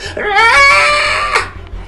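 A shrill, high-pitched scream rises sharply and holds for about a second before breaking off, loud and close, trailing into a ragged, strained wail.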